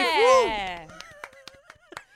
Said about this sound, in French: Je crois qu'il y avait peu d'applaudissements quand même. Merci Parce que d'habitude, c'est moi qui applaudis beaucoup.